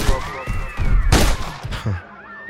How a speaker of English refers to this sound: Well, here I was on my jolly way on a Friday night when I heard a gunshot at close range. And just on the side, I saw a young guy running, another guy falling, clinging to his chest.